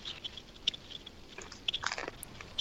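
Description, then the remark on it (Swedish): Chewing pizza right at the microphone, wet smacking and crunchy bites in an irregular rhythm, fairly quiet but intimate, with no talking. “Jag hatar att säga det här, men eh, käka lite pizza. Käka lite pizza?”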